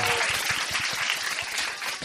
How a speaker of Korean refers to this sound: 여러분 박수 한번 즉시! 반드시! 될 때까지!